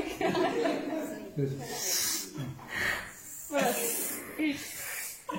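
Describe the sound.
A person imitates a snake, hissing several times in drawn-out, airy bursts, mixed with voiced talk and some light chuckling.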